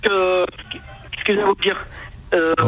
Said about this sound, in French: je pense que ton téléphone a un problème parce que ça coupe